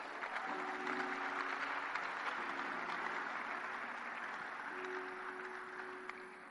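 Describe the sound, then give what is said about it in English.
An audience at a church service claps steadily for several seconds, a dense, even wash of many hands, with a faint low sustained tone humming beneath it. “Oh, you can clap if you want to.”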